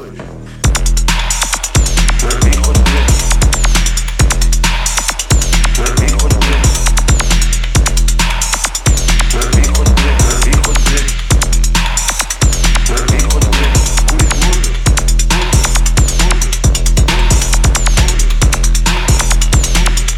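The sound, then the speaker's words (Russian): A deep, dark techno DJ mix by a female musician plays loud and steady during a technical break, driven by a thudding four-on-the-floor kick, heavy sub-bass and metallic, ratcheting percussion, with no voices over it. “Стиль ее музыки – глубокая и темная техно. И сегодня ровно до двух часов ночи ее микс звучит в техническом перерыве.”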